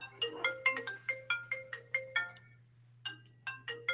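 A marimba-style phone ringtone for an incoming call chimes out a quick, bright melody of struck notes, pauses for a moment, then starts over. It sounds clear over a low, steady hum.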